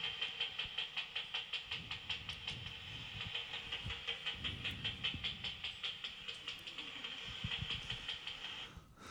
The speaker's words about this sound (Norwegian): Og når dere er ute og lytter på flaggermus og hører de der bzip-lydene Så det er hver gang de tar et insekt. Vi skal høre på enda en eh, flaggermus på jakt her.